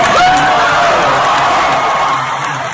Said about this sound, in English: So you can hear the celebratory cheers from people when Ed Litton was announced.